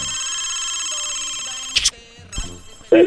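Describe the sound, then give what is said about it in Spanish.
A telephone rings steadily with a bright, sustained electronic tone, loud, broken near the end by a couple of short clicks and a brief burst of noise. “A ver, suena el teléfono ahí. Sigue sonando, sigue sonando.”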